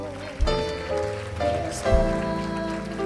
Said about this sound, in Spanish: Con un fuerte aplauso